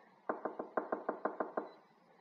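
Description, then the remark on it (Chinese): Hurried knocking on the door of Bear Granny's house by two friends who ran there: nine sharp, solid raps in three quick bursts of three, loud and evenly paced, with no voices and only faint background hiss between the knocks. “蹦蹦和跳跳一口气跑到熊婆婆家门前。急急慌慌的敲门”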